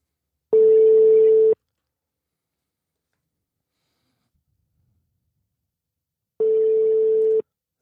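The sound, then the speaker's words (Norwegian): An outgoing phone call's ringback tone as a call is placed to reach someone: two steady one-second beeps at a single pitch, separated by a long silent gap of about five seconds, clear and moderately loud with no talking. “Vi prøver å ringe han, og så ser vi hva som skjer her, om vi får tak i han.”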